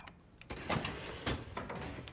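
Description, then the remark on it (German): A filing cabinet drawer behind a sales manager's chair slides open with a rough, rumbling scrape lasting about two seconds, with a couple of louder rattling surges along the way. “Der Verkaufsleiter dreht sich zu dem Aktenschrank hinter seinem Stuhl um.”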